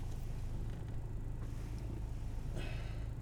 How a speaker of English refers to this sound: trying to turn down this fan a little bit. It's not too loud. Turn this down too. Sorry about that.